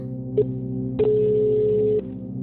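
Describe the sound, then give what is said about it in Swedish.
A steady electronic tone sounds over a low hum, a brief beep first, then a longer one-second tone, the ringing of an outgoing call as police phone back a man who had made an emergency call nearly 20 minutes earlier. “Knappt 20 minuter efter mannens larmsamtal ringer polisen upp honom.”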